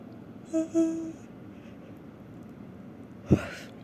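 A drawn-out, voiced yawn rises and trails off near the start. A short, sharp breathy burst follows a few seconds later, with no talking.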